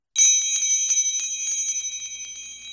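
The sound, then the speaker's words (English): A bright bell rings continuously with rapid repeated strikes, its high metallic tones sustained and shimmering, fairly loud, with no voices present. “Well, did you hear the bells? We sometimes we have chimes, sometimes we have bells.”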